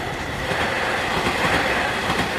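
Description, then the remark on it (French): A freight train from China crossing Kazakhstan toward Europe rolls steadily along the rails, a continuous loud rumble and rushing noise with faint rhythmic wheel clatter, without any voices. “Les trains partent pleins depuis la Chine et traversent le Kazakhstan sur des milliers de kilomètres en destination de l'Europe.”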